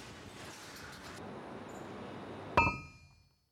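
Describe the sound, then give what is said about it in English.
A single sharp metallic clink rings out over a steady industrial rumble, its bright tone lingering and fading quickly afterward. No one speaks. “This is the sound of metal.”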